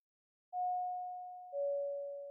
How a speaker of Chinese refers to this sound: 更深露重，借着别墅外昏黄的灯光，月璇又气又急的按着门铃。